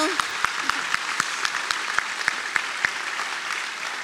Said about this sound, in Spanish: En ese proceso, un fuerte y merecido aplauso.